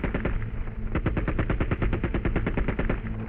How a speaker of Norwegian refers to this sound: De to unge mennene løp gjennom slusene mens de skjøt på automat fra hofta.